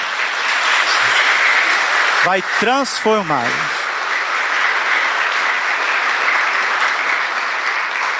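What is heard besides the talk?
applause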